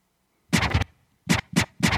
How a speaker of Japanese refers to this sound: これスクラッチですねこれは使えってことでしょうね